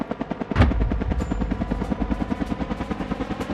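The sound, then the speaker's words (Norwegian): A helicopter with searchlights, its rotor blades chopping in a fast, steady rhythm with a loud whooshing thump near the start, the engine roaring continuously underneath. No one speaks. “Etter ca. fem minutter treffer lyskasterne fra helikopteret han i ansiktet.”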